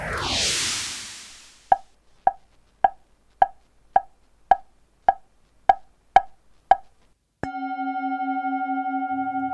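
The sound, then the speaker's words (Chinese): After a brief whooshing swell, a wooden fish (muyu), a percussion instrument used in Buddhism and Taoism, is struck about ten times in a steady, even rhythm, each knock hollow and mid-pitched, followed by a sustained humming ring. “这是一种佛教与道教都会使用的敲击乐器，叫做木鱼，也可以叫做鱼鼓或者是木鼓。”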